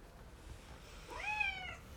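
A single drawn-out cat meow, rising then sliding down in pitch, fairly soft, heard alone over a low steady background hum.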